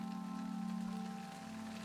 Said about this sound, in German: Es beginnt zu regnen, zu hageln, manchmal schneit es sogar.